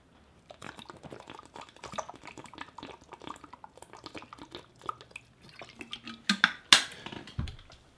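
Wet sipping and swallowing of water, a run of small liquid clicks and drips, then a louder gulp or slosh near the end, with no talking.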